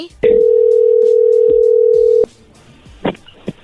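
An outgoing call's ringing tone as someone phones a man, posing as a chocolate company: a single steady, mid-pitched electronic buzz lasting about two seconds, then stopping, followed by a couple of faint clicks and rustles.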